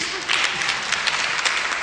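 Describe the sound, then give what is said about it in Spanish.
Steady audience applause, a dense wash of many hands clapping at once, loud, with no pauses over its short span. “Un fuerte aplauso, muchas gracias.”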